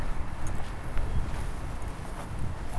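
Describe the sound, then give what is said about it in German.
Footsteps swishing through long grass left unmown for months, following a trodden path toward sculptures; a steady rustling crunch with soft irregular steps, fairly quiet, with no voices. “Wir gehen jetzt mal, was wie ein Weg aussieht oder ein Trampel, wie ein Trampelfahrt in, zu diesen Skulpturen.”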